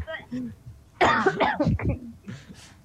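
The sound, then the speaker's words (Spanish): Harsh coughing and gagging from a drunk person about to vomit bursts out after a quiet moment: strained, retching coughs for about a second, then ragged breathing as it subsides. “estás a punto de vomitar.”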